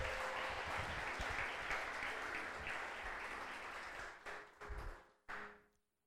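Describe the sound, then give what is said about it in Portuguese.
A crowd applauds the Lord steadily, a dense wash of many clapping hands that holds for several seconds, then thins into scattered bursts and fades out to quiet. “Pode aplaudir o Senhor?”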